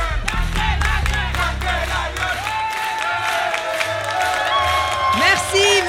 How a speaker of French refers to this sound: Elle eut droit à une acclamation qui, je crois, lui redonna du baume au cœur.